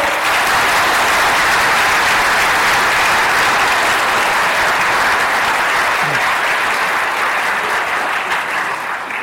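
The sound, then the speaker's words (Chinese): An audience claps warmly and steadily to welcome a professor, a dense, loud wash of many hands that holds at an even level for about nine seconds with no voices over it. “下面请大家用热烈掌声欢迎西空教授。”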